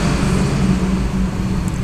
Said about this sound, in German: LKW